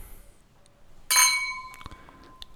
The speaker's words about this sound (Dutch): Ja, we gaan hem gewoon weer doen. Klinken.